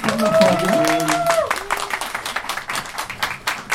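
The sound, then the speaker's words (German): Audience applause at the Podfluencer Award 2023, for the artists who made the prizes: a steady, dense patter of many hands clapping, loud throughout, with a brief voice or tonal sound over it during the first moments. “Die großartigen Künstler dieser Preise da und deswegen nochmal riesen Applaus für euch beiden.”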